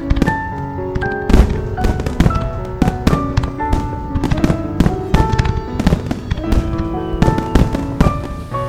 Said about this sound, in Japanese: 星もない真っ暗な闇に打ち上がったその光の大輪たちは息を忘れるほどに美しかった